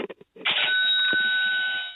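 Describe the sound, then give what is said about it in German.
A few quick taps, then a bell sound played on a sound machine rings out with a sharp strike and a clear, sustained metallic tone that hangs steadily to the end, loud. “Ah, das ist eine Klingel oder sowas?”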